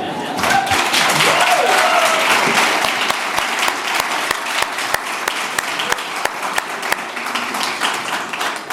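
Loud, sustained applause from an audience at a church Advent service, for a performer's gymnastic and athletic performance and her work with the children, a dense wash of many hands clapping steadily for the whole stretch, with a few sharper individual claps standing out toward the end.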